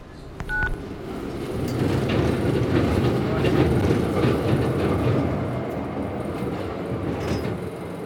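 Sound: tram running on rails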